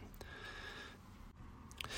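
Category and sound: human body sound, throat clearing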